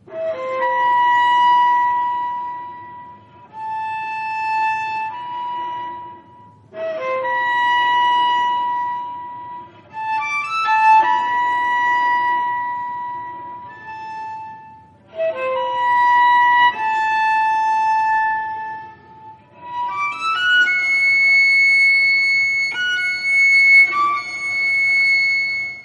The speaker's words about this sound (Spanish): Responsorio in memoriam Rodolfo Halfter con Wendy Holdaway en el fagot y los percusionistas Ricardo Gallardo y Alonso Mendoza.